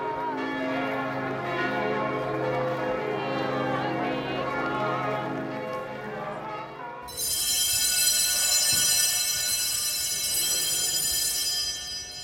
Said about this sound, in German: Die Pilger singen lauter. Wir ertrinken im Glockenläuten.